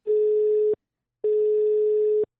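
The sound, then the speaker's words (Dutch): A telephone ringback tone heard while a call to the Zaantheater is being placed: two steady electronic tones, each under a second long, separated by a short pause, clear with no talking. “En nu ga ik bellen met”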